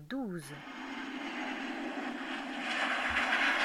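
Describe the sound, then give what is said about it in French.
A steady, loud airplane engine drone fills the cabin during a flight of about 11 hours 30 minutes covering just under 10,000 kilometres, a broad continuous roar that swells slightly toward the end, with a brief tonal sound at the very start. “Il est vrai que même si l'avion était de loin le moyen de locomotion le plus rapide pour effectuer de longues distances, je n'avais jamais vraiment aimé ça.”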